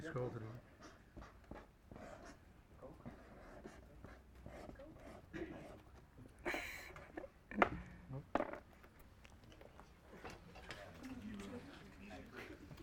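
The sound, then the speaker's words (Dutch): A marker squeaks and scratches across a flip chart in a series of short, irregular strokes, fairly clear, with soft voices murmuring. “Het is altijd lastig schrijven op zo'n eh, flip over.”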